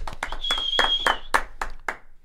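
Brief applause from a small group: a run of sharp, uneven claps lasting about two seconds, with a steady high whistle ringing over the first half before the clapping fades.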